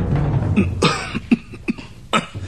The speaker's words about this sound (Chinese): 他先咳嗽一声，跟着又哼了两下。